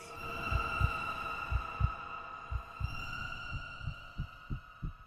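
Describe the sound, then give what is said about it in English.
A deep, thudding heartbeat in paired lub-dub pulses that speeds up toward the end, with a steady eerie drone humming underneath. No voices. “Meantime, the hellish tattoo of the heart increased. It grew quicker and quicker louder and louder every instant.”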